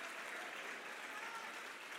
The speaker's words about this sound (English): Clap your hand and say, I don't want to get left behind.